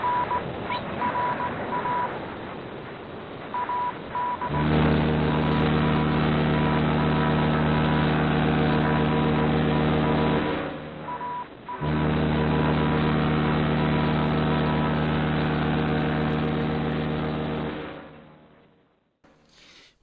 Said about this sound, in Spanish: y es un barco. Sí, es un barco.